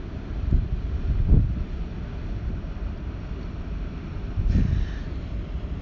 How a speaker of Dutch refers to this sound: En ondertussen passeert er een, een, een schip hier over de Schelde. Misschien hoor je het het wassende water. Vind ik zo'n mooi geluid.